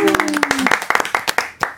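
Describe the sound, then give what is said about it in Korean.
An audience claps in brisk, irregular bursts of sharp hand claps, loud at first and gradually thinning out, with a voice briefly sounding over the start of the applause, applauding again after a live song performance on the show Back Music (백뮤직). “다시 한번 박수.”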